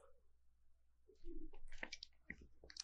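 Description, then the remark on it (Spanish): Quiet sipping of beer on a Saturday afternoon: a soft slurp, a gulping swallow and a few wet mouth clicks, with no talking. “me estoy echando una cervecita, entonces si me escucho echando un sorbo, una disculpa, salucita a todos”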